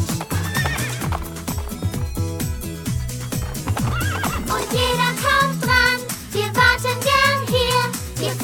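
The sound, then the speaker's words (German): A horse whinnies with loud, wavering high neighs while hooves clip-clop in a steady rhythm underneath, continuous throughout, with no talking. “Ich auf einem Pferd, wir reiten auf Pferden.”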